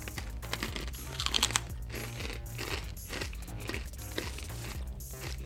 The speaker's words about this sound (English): Let's try this. These are really crispy, so apologize in advance if you guys hear the crunching.